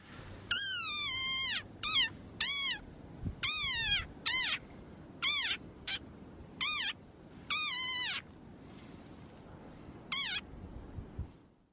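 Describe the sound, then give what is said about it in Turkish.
A desert rain frog, 4 to 6 centimetres long, gives about ten loud, high squeaks in an irregular series, each a short, shrill, harmonic squeal that drops in pitch, like a squeezed rubber toy, with no talking. “üzerine basılmış bir oyuncak gibi değil mi? Ee, çöl yağmur kurbağaları deniz ile kum tepeciklerinin arasında kalan dar bir alanda yaşıyor.”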